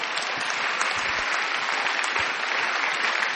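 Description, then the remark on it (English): A crowd at a worship gathering gives God a huge clap, clapping steadily and loudly, a dense wash of many hands applauding without letup for several seconds, with no voices standing out over it. “Hey, let's give God just a huge clap and just bless him.”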